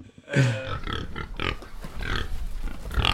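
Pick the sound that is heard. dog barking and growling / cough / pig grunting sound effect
pig grunting sound effect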